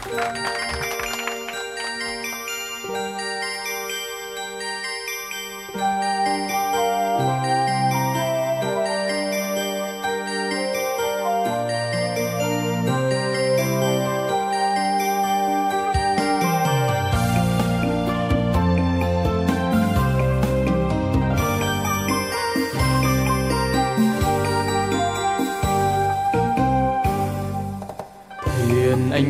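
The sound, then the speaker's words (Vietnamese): The instrumental intro of a Vietnamese song requested by a listener plays steadily with bright, chiming melodic tones over sustained chords. About halfway through, bass and percussion join, making the music fuller and more rhythmic. No one speaks. “chương trình sẽ gửi tặng đến cô ca khúc mà cô yêu cầu …”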